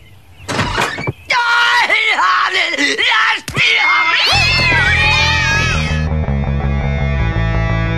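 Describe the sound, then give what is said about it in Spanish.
Dozens of cats meow and yowl over one another in a loud, overlapping chorus, and about halfway through a heavy, steady low rumble rises beneath the continuing cries. “Las personas aseguran que está loca porque tiene decenas de gatos.”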